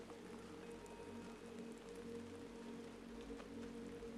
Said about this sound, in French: Concentrez-vous sur le doux son de la pluie, de lumière, laissant sa mélodie vous emporter dans un état de tranquillité profonde.